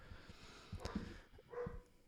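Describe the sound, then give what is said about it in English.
A dog barks a couple of times, two short muffled bursts about a second apart, faint, with no one talking. “Just the dog.”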